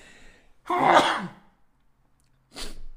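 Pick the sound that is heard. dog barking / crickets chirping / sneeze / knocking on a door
sneeze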